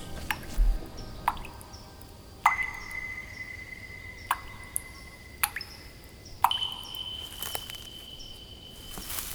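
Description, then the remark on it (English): Water drips in a stone fountain, a handful of crisp plinks falling at an uneven pace, each leaving a brief bright ringing tone over a soft steady hiss. “A fountain.”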